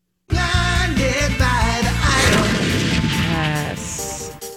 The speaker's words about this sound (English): No, that's like a launcher. Okay. Because there's an explosion at the end.